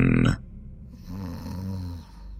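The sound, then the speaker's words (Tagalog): A person snoring: one drawn-out, low rumbling inhale rattles for about a second, moderately quiet, after a brief louder burst of sound at the very start. “Parang dito rin sa aking pwesto ngayon, may naririnig akong humihilik na.”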